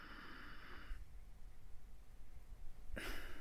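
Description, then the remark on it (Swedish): A voice imitates a father's heavy breathing: a long, noisy intake of air, a short pause, then a forceful, breathy exhale that starts abruptly. Fairly loud, with no talking. “så han tar ett jävla, ett jävla andetag och så gör han så, så här, ofta liksom så bara.”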